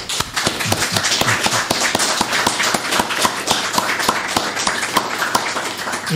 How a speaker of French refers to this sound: Je vous propose de l'applaudir pour cette contribution et surtout pour son livre.